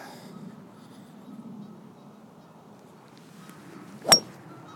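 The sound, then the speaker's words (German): A steady low rumble of wind runs for about four seconds, then a single sharp, bright crack rings out as a 3-hybrid golf club strikes the ball thinly, fading quickly. No one speaks. “Oh, der war dünn getroffen, aber macht nichts kaputt. Das ist der perfekte Windschlag.”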